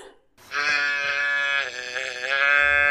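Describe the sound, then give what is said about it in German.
A large white toy teddy bear with a bow around its neck, sitting on a pedestal in the Badisches Landesmuseum at Karlsruhe Palace, growls sadly: one long, drawn-out, wavering moan with a buzzy, nasal tone, steady and fairly loud, heard alone after a brief silence. “Da hinten sitzt ein großer weißer Teddybär mit einer hübschen Schleife um den Hals auf einem Podest und brummt traurig vor sich hin.”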